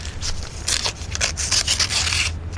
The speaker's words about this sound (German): Na, was steht denn im Brief? Das können wir doch jetzt schon lesen. Ach, hast recht. Ich öffne ihn.